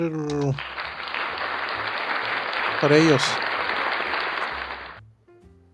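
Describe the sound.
A burst of applause, dense steady clapping from a crowd lasting several seconds, with a few spoken words at the start and a brief voice in the middle before it fades out.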